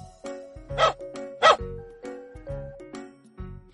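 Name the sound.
dog barking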